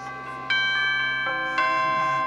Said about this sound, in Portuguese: Feliz Natal, que dia 24, amado, para 25, esses sinos estejam repicando em tua casa.